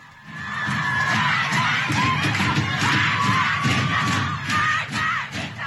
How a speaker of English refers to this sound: Iranian schoolgirls pulling off their headscarves and shouting, Death to the dictator.